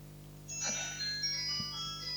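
A mobile phone that no one knew was switched on starts ringing after a short pause, playing a bright electronic melody of high, tinkling tones at moderate volume over a steady low background hum, with no one talking.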